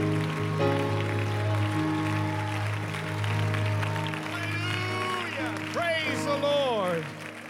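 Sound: audience clapping hands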